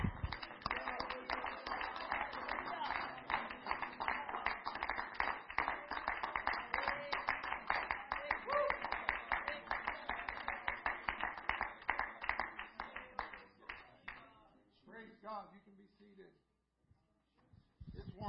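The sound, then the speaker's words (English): An audience at a church service claps their hands together in Jesus' name in a dense, sustained burst of applause for about fifteen seconds, loud, then it fades out as a voice begins speaking. “If we could clap our hands one more time in Jesus' name.”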